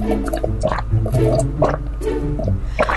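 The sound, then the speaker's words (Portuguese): Plain water is poured steadily into a glass, with bubbling, gurgling splashes that shift as it fills over a few seconds. “Ah, uma aguazinha comum para começar o dia.”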